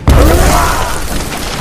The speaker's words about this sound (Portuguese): mas um pedaço de metal caiu em meio a eles, ao lado da fogueira, e explodiu